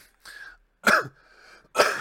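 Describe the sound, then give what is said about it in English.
Two sharp, loud coughs about a second apart, with a softer throaty rasp between them and no talking. “Sorry, that wasn't the cough.”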